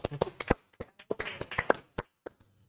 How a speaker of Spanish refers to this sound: Un aplauso, ¿cierto?